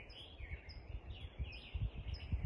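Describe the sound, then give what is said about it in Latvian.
Birds chirp and warble continuously in a soft dawn chorus, several overlapping calls, with a low rumbling background underneath and no talking. The birds begin their morning chirping around five in the morning as day breaks. “Putniņi sāk savu rīta čivināšanu, un mans prāts pamazām sāka pamest sapņu pasauli.”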